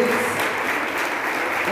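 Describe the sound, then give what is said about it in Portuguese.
A church audience applauds the Lord steadily, a dense, even wash of many hands clapping that holds at a constant loud level throughout, with a faint murmur of voices mixed underneath. “Pode aplaudir o Senhor pela sua preciosidade.”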